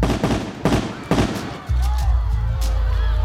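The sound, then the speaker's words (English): A few sharp, loud gunshots crack out in quick, uneven succession, the shots that struck Renault's president George in the chest as he reached his home, then the blasts stop and a low, steady droning hum takes over. “He lay on the cold ground, bleeding out from four gunshots to the chest,”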